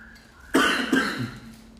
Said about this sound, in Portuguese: Essa tosse tá horrível. Mas não interfere nem o barulho, nem a tosse, nem nada.